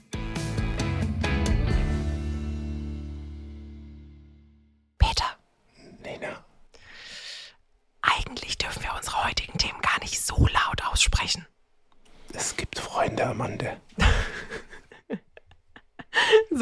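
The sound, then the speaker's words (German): A sustained, fading musical tone gives way to breathy ASMR whispering in hushed, intermittent bursts with short pauses, intimate and soft, with occasional airy breaths. “Gehen wir mal weg vom ASMR und wieder zurück.”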